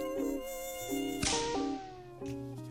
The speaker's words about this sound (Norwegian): Det er bare én ting med sommeren som jeg ikke liker. Myggen.